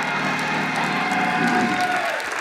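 A crowd applauds steadily, the dense clapping mixed with scattered shouts and cheers from a church audience in Columbus, loud and sustained throughout.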